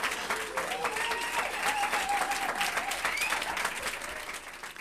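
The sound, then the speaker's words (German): A crowd applauds, on request, at a presentation of the Berlin Music Network, with dense, rapid clapping that holds at a fairly even level, joined by a few cheers and murmuring voices, then eases slightly toward the end. “Einmal Applaus bitte.”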